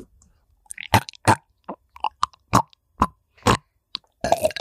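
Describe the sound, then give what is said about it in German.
Mouth noises from someone putting a microphone in their mouth: a loose, irregular string of about a dozen short, wet smacking and chewing-like bursts, fairly loud, ending in a longer rustling scrape. No one speaks. “Jetzt nehme ich mal mein Mikrofon in den Mund.”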